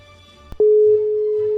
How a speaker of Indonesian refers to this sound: Sudah ada nada sambungnya.